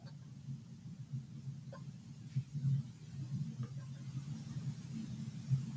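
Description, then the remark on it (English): A low, steady mechanical hum of air conditioning in the room, a constant rumbling drone with faint clicks on top, moderately quiet and heard alone without speech, while a Cloudlifter Z's high-pass filter is engaged and its Z (impedance) knob is turned to filter out the low-frequency noise. “can hear the air so conditioning. As I turn as I turn the Z knob, you're going to hear it disappear.”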